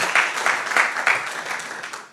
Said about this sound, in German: Vielleicht können wir dem Team nochmal einen riesen Applaus geben, die das hier aufbauen für den Worship.